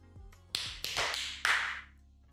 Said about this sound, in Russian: Давайте хлопаем. Хлопаем.